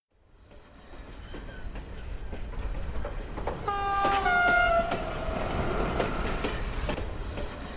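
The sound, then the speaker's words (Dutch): A train rolls slowly along the rails at about 40 km per hour, slowed because of a dead swan beside the track, with a steady low rumble, a long horn blast sounding partway through over the continuing clatter of the wheels. “De trein rijdt met een gangetje van 40 km per uur.”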